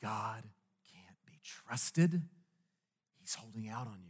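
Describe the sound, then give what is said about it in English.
A hushed voice whispers a few breathy, sibilant phrases with short pauses between them, imitating a sly, tempting serpent. “a serpent begins to whisper into humans' ears. And that whisper sounds something like this”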